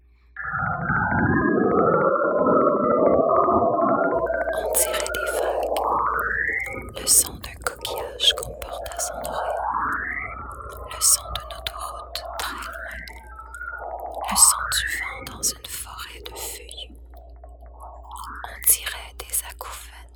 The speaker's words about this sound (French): les équipes de la NASA enregistrent le son d'énormes vagues de plasma qui circulent entre Saturne et son satellite naturel Encelade